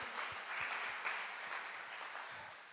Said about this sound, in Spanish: Recibimos con un fuerte aplauso a la comunidad online que está en este momento y también a todos ustedes que están aquí.